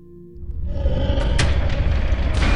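A door slams shut with a dull, heavy crash just after the last of a group has stepped through it into a long room. A low rumble swells up, loud and sustained, with a few thudding impacts inside it and no voices.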